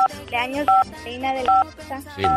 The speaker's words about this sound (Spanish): ¿Estás marcando algo o te están marcando o qué?